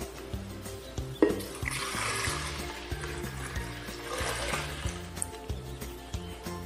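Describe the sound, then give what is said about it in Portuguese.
Milk, the first ingredient for a geladinho, pours steadily into a blender for several seconds, a soft continuous splashing hiss that swells and fades, with background music playing underneath throughout. “Primeiro eu vou colocar o leite.”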